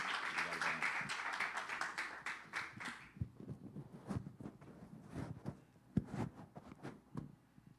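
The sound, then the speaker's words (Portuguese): A church audience applauds the pastor invited to preach, in a dense burst of clapping for about three seconds, then it thins into scattered, irregular claps and taps that trail off. “Que a igreja o receba com uma calorosa salva de palmas para Jesus.”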